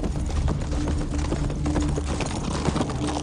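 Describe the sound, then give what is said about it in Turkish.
Hooves of a horse approaching at full gallop with its rider, in a rapid, steady rhythm, loud, with a continuous low rumble beneath and no voices. “Seslerle duraklayıp bakışlarını atıyla dört nala yaklaşan Hüseyin'e yönelttiler.”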